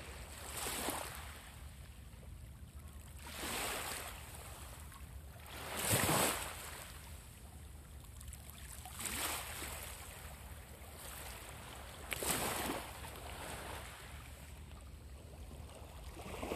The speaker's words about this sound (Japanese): 海岸に来ています。どうでしょうか波の音は入りますかねちょっと入れてみますね。